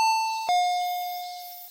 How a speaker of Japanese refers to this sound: じゃあ、ちょっとピンポン押していいですかお願いします。